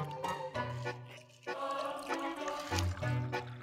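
Sounds of drinking water: liquid sloshing and trickling with low gulping pulses, continuous for a few seconds at moderate loudness, no clear talking.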